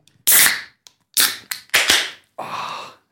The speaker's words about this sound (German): Deswegen müssen wir uns eigentlich ein Bier dazu aufmachen. Das mache ich sehr gern, ja. Hab, zufälligerweise steht da neben uns eins.